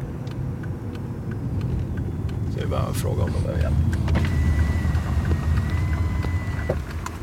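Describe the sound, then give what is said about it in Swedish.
Steady low road rumble from inside a car moving along a 70 km/h stretch of road toward Kohler, continuous throughout, with a person speaking briefly over the engine and tyre noise. “Mitt på 70-sträckan mot Kohler står plötsligt två bilar och spärrar effektivt vägen för oss.”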